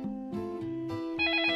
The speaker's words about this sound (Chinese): 这时啊，电话铃响了，是个坏消息，奶奶因为感冒不能来了。